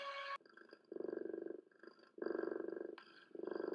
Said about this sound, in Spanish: Los ronroneos son muy comunes en los gatos ya que expresan amor. Cuando estamos acariciando un gato en un confort, comenzamos a sentir un pequeño motor que comienza a arrancar y suena por todo su cuerpo.